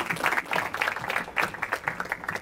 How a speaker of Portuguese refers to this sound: Salve de palmas para ele.